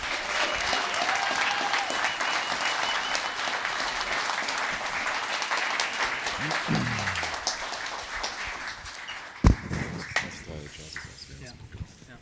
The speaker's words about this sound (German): Glückwunsch. Einmal noch bitte kurz Applaus für das Siegerteam.